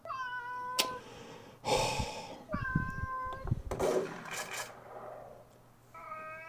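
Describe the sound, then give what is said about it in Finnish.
A cat being lifted onto a table meows several times in close succession, loud, with some whiny drawn-out cries mixed with rustling and handling noises between them. “No, älä mauu.”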